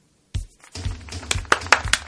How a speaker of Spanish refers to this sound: Aplausos ahí, espontáneos por supuesto de toda la gente que nos acompaña acá.